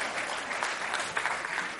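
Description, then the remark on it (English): An audience breaks into steady, dense applause for two volunteers called up, many hands clapping together in a continuous crackling wash that holds an even loudness throughout the short clip. “A big round of applause for both of my volunteers.”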